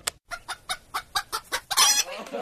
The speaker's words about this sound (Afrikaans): Die geheime prys is Wag vir dit. Jy kan luister na hoe 'n hen klink wat nou net 'n eier gelê het.